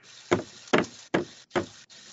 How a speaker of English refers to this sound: So this thing is really fucking cool. Let me bang it on the table so you guys can hear how heavy it is.